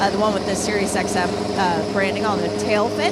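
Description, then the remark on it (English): The Acura engine of the pink No. 60 MSR Acura prototype race car runs at a steady idle, its low droning hum constant throughout while a man talks over it. “The sound you're hearing is the Acura engine from the pink one.”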